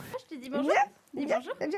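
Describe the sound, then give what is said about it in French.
A two-year-old black-and-white English setter, a dog working full-time in a hospital care unit in France, barks in two short bursts, its voice rising and falling in pitch like a yelping bark, with a brief pause between them. “Arrivé mi-décembre, Snoopy, un setter anglais noir et blanc de deux ans, fait oublier le combat contre la maladie.”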